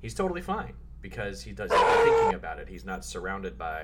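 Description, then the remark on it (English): A dog lets out one loud, drawn-out bark, cutting through a person talking steadily before and after it. “that's uh, that's the dog.”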